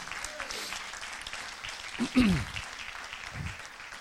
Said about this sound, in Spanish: Alguien dice amén. Alguien le da un aplauso fuerte a Jesús.